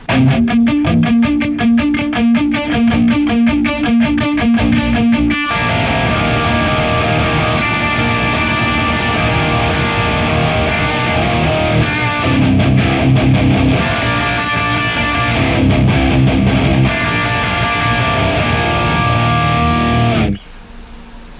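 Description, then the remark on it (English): A loud, heavily distorted electric guitar plays alone through a blend of a Boss IR200 impulse response loader and Neural DSP Archetype Nolly, using the Mick Buzz Nectar Giant impulse response. It starts with tight palm-muted chugs, then opens into thick, sustained chords and riffs that cut off abruptly near the end. “we blend the two impulse response loader, the IR200, and the Neural DSP archetype Nolly, using the Mick Buzz Nectar Giant impulse response, it sounds like this.”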